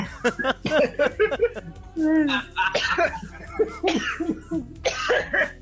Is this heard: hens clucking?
no